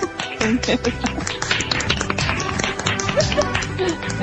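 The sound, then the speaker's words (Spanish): Rapid, uneven claps or slaps made by a person clapping with one hand repeat steadily for several seconds, sharp and fairly loud, with faint voices murmuring underneath. “Que estoy aplaudiendo con la mano.”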